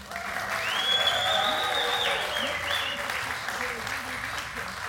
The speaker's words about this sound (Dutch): hij werd opgenomen op het Zomerparkfeest in Venlo. Onder de bezielende begeleiding van dit fantastische eh, publiek. Applausje voor jullie zelf.